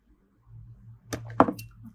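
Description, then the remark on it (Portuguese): Someone drinking water: a low steady hum, then two sharp clicking bursts and a short swallowing sound, with no talking. “Desculpa aí de tomar água.”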